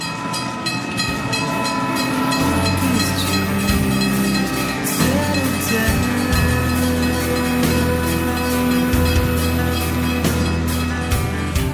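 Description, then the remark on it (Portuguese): A train rumbles steadily along the rails, heard from a distance late at night in the wind, its heavy low drone and rhythmic clatter filling the whole stretch without letting up. No one speaks. “O sinal estava fechado e de longe pude escutar o barulho dos trilhos.”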